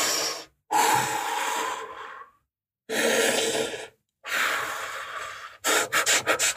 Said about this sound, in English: Okay, six deep breaths.